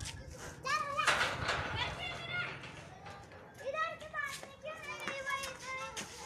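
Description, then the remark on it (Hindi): A group of children chatter and shout over one another, high excited voices overlapping continuously with bursts of louder calls, a lively commotion, as they arrive where a cow is being milked. “कोई सी भी थोड़ी सी आहट होती है गाय देखती है कौन आया बच्चे आ गए एकदम कर रहे हैं तो चलो जाओ इधर से जाओ”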